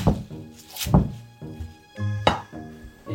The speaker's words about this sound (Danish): Og så har vi noget grønkål her, som bare lige bliver groft hakket.